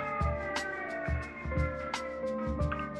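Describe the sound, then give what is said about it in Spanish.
A curfew warning siren sounding at 10 p.m. on Friday, 3 July 2020, holds a steady, droning tone throughout, fairly quiet, with occasional low thumps and brief hissy bursts in the foreground and no one talking. “Estoy haciendo a silencio porque quiero que escuchen esa sirena.”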